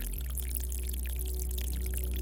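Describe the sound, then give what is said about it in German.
Water from a small brook trickles gently and steadily down rock steps, a soft, continuous patter of small splashes above a low, constant rumble, with no voices. “Hier tröpfelt das Wasser ganz sanft, behutsam regelrecht.”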